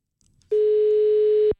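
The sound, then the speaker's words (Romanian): A single steady telephone ringback tone, a loud, even hum lasting about a second, heard over a phone line while placing a call about a studio apartment listed online for rent, preceded by faint low rustling. “Iată că sună oameni buni.”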